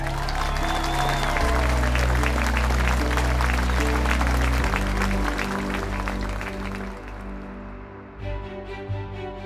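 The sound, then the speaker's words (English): A large audience applauds loudly and steadily, dense clapping that fills the space, with sustained tones from music running underneath before the ovation thins slightly near the end. The applause grows to a roar as Nadiya accepts her trophy and a bouquet of flowers. “The applause grew to a roar as Nadiya held her face in her hands and began to cry”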